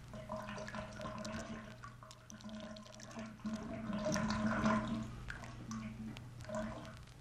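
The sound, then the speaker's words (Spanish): Water runs steadily with a continuous rushing wash, scattered drips and splashes breaking through, swelling slightly louder midway before settling back, over a faint low hum. “Solo el correr del agua se escuchaba.”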